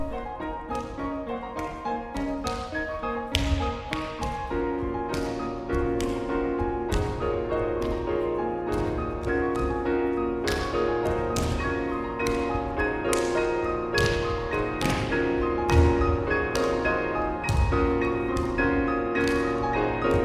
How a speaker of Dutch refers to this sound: Psalmensymfonie klonk in de versie voor twee piano's van Shostakovich.